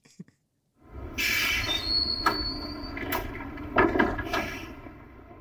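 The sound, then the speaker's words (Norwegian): A tram bound for Grorud rumbles with a steady electric hum, a thin high squeak of wheels or doors, and a few clunks as its sliding doors move; nobody speaks. “Men uh, først nå vroom, trikken til uh, Grorud.”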